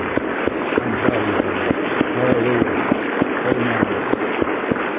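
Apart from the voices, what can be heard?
audience clapping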